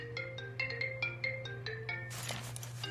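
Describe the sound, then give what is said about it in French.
A phone rings with a melodic electronic ringtone, a quick run of bright beeping notes over a low steady hum, cut off by a burst of rustling noise. “Papa, Guy, ton ah, ah. téléphone sonne.”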